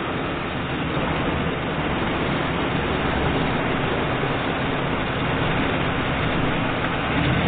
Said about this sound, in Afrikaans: Die see lyk heeltemal opgekrap. Ja, want die water is vlakker. Dis 'n verdomde kookpot. Golwe spring en maal en skuin. Seker daar blerry sandbank hier onder ons.